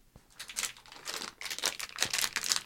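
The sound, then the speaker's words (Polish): Fairly loud crinkling of a plastic bag of Korsarze coconut dragée candies, a continuous run of crisp, rustling crackles rising and falling in bursts for a few seconds, with no voices. “To opakowanie to tak rzeczywiście niezbyt jest y, przyjemny no dźwięk”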